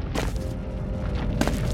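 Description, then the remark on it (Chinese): A deep, rumbling explosion blasting open a vault, with a huge shockwave and dust, roars on as a dense, sustained wash of low-heavy noise, with sharper crackling bursts flaring near the start and again toward the end. No voices are heard. “兔子警长的身边弥漫着爆炸后产生的粉尘”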